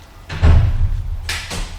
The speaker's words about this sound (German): Vor seiner Haustür drehte er sich noch einmal kurz zu seinen beiden Freunden um und verabschiedete sich mit einer wortlosen Geste. Nachdem die Tür ins Schloss gefallen war, blickten sich Justus und Bob fragend an.